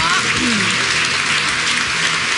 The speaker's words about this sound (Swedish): Eh, nu har det blivit dags för eh, kvällens eh, huvudperson att så att säga tacka för maten. En jättestor applåd för Pernilla Wahlgren!